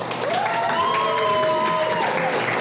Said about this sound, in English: But before I start, can we get a hand for the host this evening, Sir Oxford Cambridge? Let's hear it, folks.